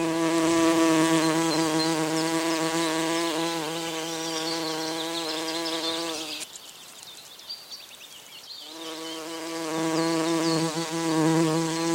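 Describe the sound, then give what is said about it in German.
A bumblebee buzzes loudly with a deep, steady hum that wavers in pitch, falls away for about two seconds midway, then returns just as strong. “Das war eine Hummel.”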